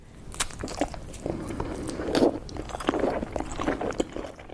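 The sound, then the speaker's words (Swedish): Someone eats a piece of cake with moist chewing, lip smacks and sticky mouth clicks, a steady run of close-up munching noises with no talking. “Då är det så här, nu sitter jag här och äter en god tårtbit.”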